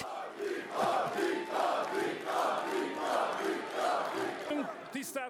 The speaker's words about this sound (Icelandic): En það var Orban vel fagnad af stuðnísfólki sínu eftir að úslitin lágu fyrir.